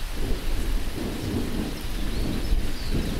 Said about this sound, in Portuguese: E como está chovendo, acho que a gente vai ter que parar aqui né? daqui a pouco. Agora chover forte, né?